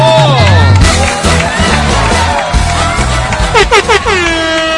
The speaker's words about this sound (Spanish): Te esperan para aplaudir, por favor, bravísimo.